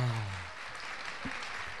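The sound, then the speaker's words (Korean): Steady, dense audience applause for guest Tony An at a year-end show fills the whole stretch, a broad wash of many clapping hands at an even level, with a low hum or brief vocal sound at the start. “다시 한번 아낌없는 큰 박수 한번 주세요.”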